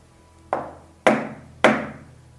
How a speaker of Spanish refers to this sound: volvió a su piso y volvió a escuchar los tres golpes en la puerta.